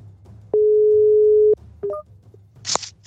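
An early-afternoon phone call to someone in Gothenburg: a single steady, mid-pitched ringing tone drones for about a second while the call goes through, followed by a few short electronic chirps and a brief burst of clicking noise as the line connects.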